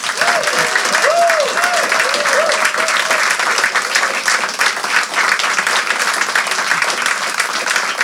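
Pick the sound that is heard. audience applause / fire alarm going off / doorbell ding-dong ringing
audience applause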